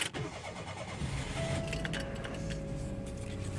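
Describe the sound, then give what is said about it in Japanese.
The engine of a Mira Gino kei car cranks and catches, then settles into a steady idle with a low rumble and a faint whine running through it, in a quiet setting. No one speaks. “では、愛車ミラジーノのエンジンをかけるところからお届けしたいと思います。”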